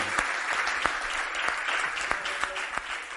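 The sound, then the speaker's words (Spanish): Steady audience applause, a dense patter of many hands clapping with some sharper individual claps standing out, holding at an even level throughout with no voices. “Muchas gracias y un aplauso para cada uno de ustedes.”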